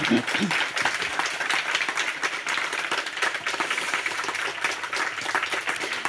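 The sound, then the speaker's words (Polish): An audience at a meeting with author Agata Tuszyńska applauds steadily for several seconds, a dense wash of overlapping claps at a fairly loud, even level without letting up. “Brawa.”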